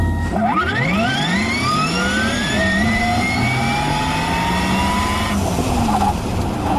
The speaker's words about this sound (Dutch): Maar natuurlijk, met de Porsche wil je altijd het geluid horen.